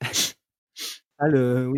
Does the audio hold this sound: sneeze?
yes